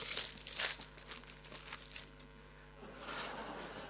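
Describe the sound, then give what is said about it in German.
Gift wrapping paper rips and crinkles as a present is unwrapped: a couple of sharp tearing bursts at the start, then continuous rustling and crumpling with no one speaking. “Bei mir sieht das beim Auspacken dann immer so aus.”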